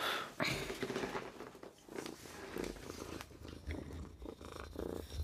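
A Sphynx cat purring, a steady rumbling purr with a pulsing in-and-out rhythm and occasional soft rustles, continuing throughout with no talking.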